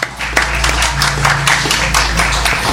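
An audience breaks into steady applause, many hands clapping together in a dense, continuous patter that holds at a fairly loud level for a few seconds over a low room hum.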